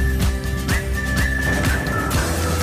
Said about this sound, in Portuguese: O tempo da comercial é uma oferta às GA Seguros. Está aqui o assobio que não me deixa mentir. AGA Seguros, o um mundo para proteger o seu.